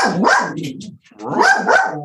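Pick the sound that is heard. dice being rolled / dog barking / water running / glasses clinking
dog barking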